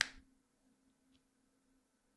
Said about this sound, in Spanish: Y ese chasquido que acabo de dar ya es pasado. Porque ya me tengo que referir a él en tiempo pasado. Ya pasó.